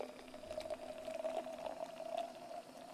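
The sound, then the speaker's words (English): A freshly cracked can of Seagram's drink poured over a little ice, with a steady stream of crackling, popping fizz that runs continuously for a few seconds and no talking. “There's my crack of my drink, and I'm gonna put it in Agent Scully here with a little ice.”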